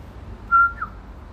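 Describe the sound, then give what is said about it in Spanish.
A woman whistles her family's own call, the way her father used to whistle to her mother: a steady, clear note followed by a quick slurred lower note, distinct over a quiet, low rumble. “Y yo soy la única que puede chiflarle ah. Así como chiflaba mi papá.”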